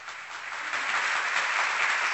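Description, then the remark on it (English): A roaring round of applause, dense crowd clapping that swells slightly and holds steady and loud throughout, with no voices over it. “Let me give him a roaring round of applause.”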